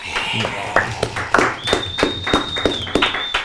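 A small audience applauds a recurring panelist on a show with brisk, uneven claps for a few seconds, and a steady high-pitched whistle joins partway through and holds over the clapping.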